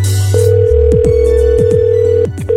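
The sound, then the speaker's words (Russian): A telephone ringback tone of an outgoing call to a company about a job vacancy: one steady, fairly loud electronic buzz held for about two seconds, over a low droning hum with a few quick sliding blips underneath; no one speaks. “а сейчас я предлагаю проверить одну из сегодняшних вакансий – Контрольный звонок”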